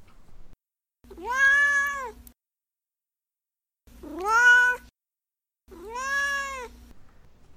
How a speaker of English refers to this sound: All right, well, now it's time for Dorothea's Corner, where my cat Dorothea chimes in with his opinions.